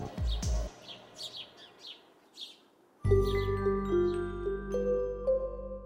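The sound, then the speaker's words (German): Two sparrows on a roof outside a window chirp in a quick series of short, high tweets, before a louder, steady tonal sound with sustained notes takes over and covers them. “Einer der Spatzen hopst in die Mitte des Dachs.”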